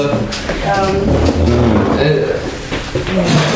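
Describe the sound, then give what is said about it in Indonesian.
Tables and chairs being shifted and tidied at a radio station, scraping and knocking, while people talk over the clatter throughout. “kita lagi rapi-rapi ini buat bayangin ya kita lagi rapi-rapi meja, kursi segala macam.”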